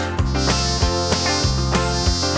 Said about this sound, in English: Right, the mosquitoes go as they buzz around your ear.